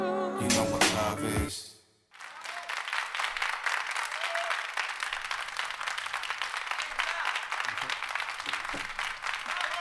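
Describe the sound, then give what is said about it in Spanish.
A brief burst of loud music cuts off abruptly, then steady, sustained applause from a crowd fills the rest, dense, with no break in the clapping. “Bueno, bien, este, aplausos ahí, este, no sé, son para, para vos,”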